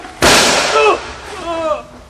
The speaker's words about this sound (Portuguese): Uh, você o desarmou com um tiro, Jerônimo. Ah. Que rapidez! A arma do cobra voou longe.